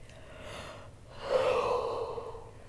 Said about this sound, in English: Oh, I caught your yawn.